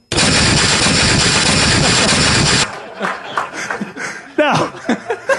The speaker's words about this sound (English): if you put them together, I think it's going to sound like an AK-47. Can you do that for me?